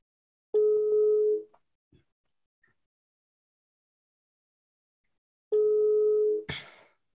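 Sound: phone ringing tone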